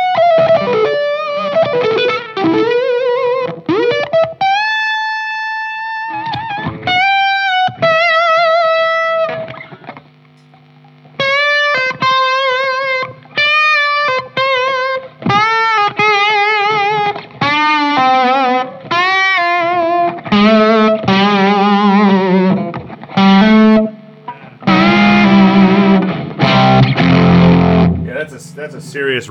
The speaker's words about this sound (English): Uh, more treble. plenty of distortion if you want. Yeah, yeah.